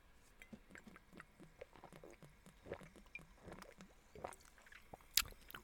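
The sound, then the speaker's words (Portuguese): Wet gulping and swallowing as someone drinks from a freshly opened bottle of sparkling mineral water, a steady series of soft squishy mouth sounds ending with a brief sharp splash or fizz burst; no talking. “Que foi, eu queria beber isto, bebi, babei-me, acabei de me babar todo.”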